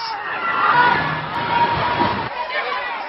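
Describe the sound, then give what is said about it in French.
A large outdoor crowd of counter-protesters in Charlottesville in 2017 roars and shouts continuously as a car rams into the crowd at full speed in the distance, a dense wash of many overlapping voices, loud and steady, with a few sharper cries rising out of the din before it thins slightly near the end. “Cette vidéo est filmée par un manifestant. Au loin, une voiture fonce dans la foule.”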